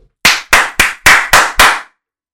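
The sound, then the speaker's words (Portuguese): Six loud, sharp hand claps in a quick, steady rhythm, each a crisp slap with a short decay, made at home at 11 at night, followed by silence. No one speaks. “E são 11 horas e eu estou loudly a bater as palmas na minha casa”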